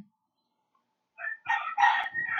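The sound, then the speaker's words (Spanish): A rooster crows loudly, a single drawn-out cock-a-doodle-doo in several harsh bursts rising after a second of near silence; the rooster is crowing outside its usual hours. “El, gallo rápido está aquí pisando, la gallina la, gallina, la gallina del vecino al lado.”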